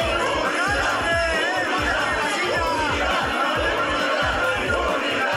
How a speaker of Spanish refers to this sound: Entrelazados de las manos, las cuatro corcholatas de Morena y las dos del PT y del Partido Verde corearon el grito de unidad, unidad al término de la sesión extraordinaria de los 300 consejeros de ese partido.